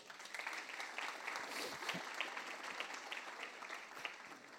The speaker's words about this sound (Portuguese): Amém. Oh, glória a Deus. Dê um aplauso ao Senhor.